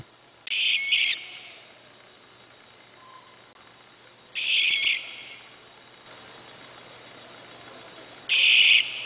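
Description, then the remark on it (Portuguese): A barn owl (Tyto furcata, also called suindara or church owl) gives three harsh, hissing screeches, each under a second long and spaced several seconds apart, loud against a quiet background with no talking. “Então, pessoal, o bicho do último episódio foi uma suindara, ou coruja das torres, ou coruja da igreja.”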